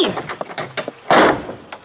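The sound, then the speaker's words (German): A door is pushed shut: a few light rattles and knocks lead into a single loud thud that briefly rings out and fades, with no talking. “Wärst du so freundlich, die Tür hinter dir zu schließen?”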